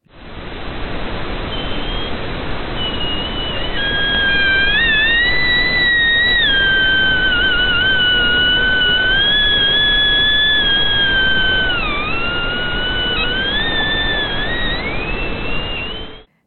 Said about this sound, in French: il y a de la glace qui se balade sur l'eau. Et ça, ça fait des chants.